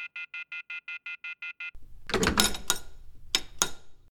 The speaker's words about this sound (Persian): طبقه پایین تو لابی یه ده سنتی تو تلفن انداختم و با شماره که وندی داده بود تماس گرفتم یه صدای ضبط شده مطلعم کرد که این شماره دیگه تو شبکه موجود نیست